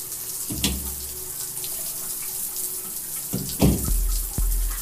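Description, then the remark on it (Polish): A shower runs in a shower cabin with a steady hiss of spraying water, broken by two louder gushing surges near the start and end, with no voices. “Rozebrałam się do naga i weszłam do kabiny prysznicowej.”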